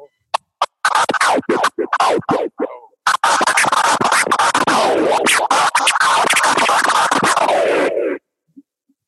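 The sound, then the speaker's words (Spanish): A DJ scratches a vinyl record on a turntable with rapid choppy cuts, opening and closing the sound: short percussive bursts in quick rhythm, then a longer stretch of dense back-and-forth scratches with sweeping pitch, loud, no talking. “Y el disco este sonido, de acuerdo como yo lo corte, es que hago un sonido diferente.”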